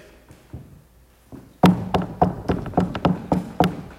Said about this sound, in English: Jesus is knocking this morning. Are we going to let him in?